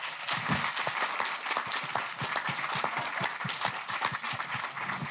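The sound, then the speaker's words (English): Steady audience applause at a live show at the Everyman Palace fills the whole stretch, a dense wash of many hands clapping at an even, sustained level with no speech over it. “Round very applause, much.”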